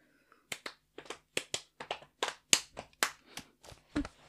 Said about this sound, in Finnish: Saanko mä tehdä semmoisen rytmitaputuksen?